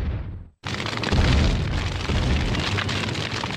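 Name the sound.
bomb explosion sound effect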